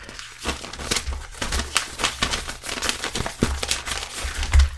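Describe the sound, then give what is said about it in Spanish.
Paper rustling and crinkling in quick, irregular bursts as a lawyer in a courtroom shuffles through a thick stack of sheets to consult his list, with no voices over it. “¿Pero cuántos papeles ha traído usted?”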